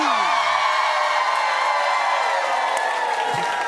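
A studio audience screams and cheers loudly and continuously for Sherri Shepherd at Flavor Flav's call, a dense wall of high-pitched shouting and whooping that holds steady for a few seconds.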